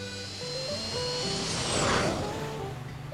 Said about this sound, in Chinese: 航空母舰是一种大型军舰，是一座航行在海面上的飞机场。战斗机可以从舰体上方的飞行甲板起飞。